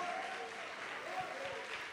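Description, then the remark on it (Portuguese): An audience applauding for Jesus, a steady wash of many hands clapping at once, dense and continuous without a break, with some faint voices mixed into the crowd noise. “Essas palmas são para Jesus, porque foi Ele que te tornou herdeiro dele.”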